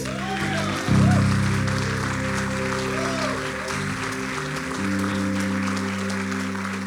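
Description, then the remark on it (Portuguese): A crowd claps steadily for several seconds, a dense and continuous wash of applause, with low sustained keyboard chords playing underneath and a few faint voices calling out. “Pode dar um aplauso, Jesus.”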